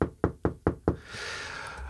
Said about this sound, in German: Ich gucke direkt vor der Wand, also ich kann meinen Arm ausstrecken und kann, du hörst es, die Wand vorne klopfen und die Schräge über mir.